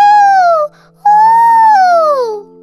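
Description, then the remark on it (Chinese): A voice imitates a fox's howl with two drawn-out, wavering wails: a short one, a brief pause, then a longer cry that slides downward in pitch. It is loud and has no other talking. “听着，我们狐狸是这样叫的：呜呜。”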